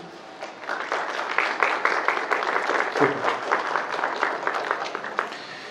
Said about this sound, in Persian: تا اینجا چطور بود خوب بود خودتون رو تشویق بکنید